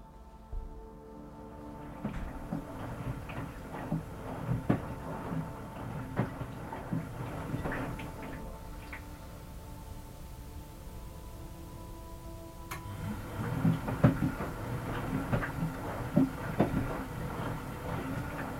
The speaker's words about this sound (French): J'aurais dit une machine à laver. C'est ça Bingo.